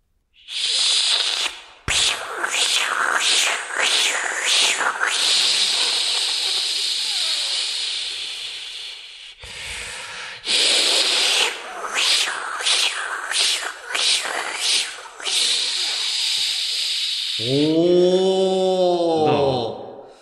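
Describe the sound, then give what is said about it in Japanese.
A voice imitates a minmin cicada call: a long, bright, hissing drone with rapid pulsing bursts, repeated in two sustained phrases, ending with a lower warbling hum. “じゃあ、ミンミンゼミも、できるようになってるから聞いてもらっていいミンミンゼミはインスタにもまだ上げてないから。”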